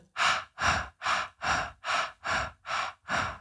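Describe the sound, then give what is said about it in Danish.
A rapid, even series of short, sharp breaths, about eight quick puffs in a steady rhythm, clear, with no talking, as someone demonstrates a labour breathing exercise of four short breaths in followed by one long breath out. “Og så laver du fire korte.”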